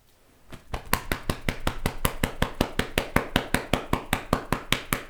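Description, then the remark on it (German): A hand pats steadily on a shoulder, a quick, even run of soft, dull thumps, continuing for several seconds with no one speaking. “Ja, trotzdem kannst du dir darauf jetzt auf die Schulter klopfen.”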